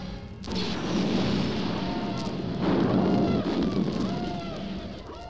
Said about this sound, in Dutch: In moments, Imperial stormtroopers invade the rebel craft with a blaze of laser weapons.